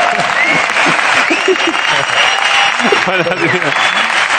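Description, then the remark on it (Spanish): Loud, steady audience applause for Pablo Carreño and Marcel Granollers fills the whole clip, a dense wash of clapping with scattered voices calling out within the crowd. “Un aplauso para Pablo Carreño y Marcel Granollers.”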